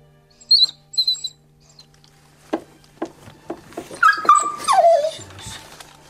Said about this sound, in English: taking the sack off the puppy and I'm trying to see that it's alive. For so long, the puppy could be in distress.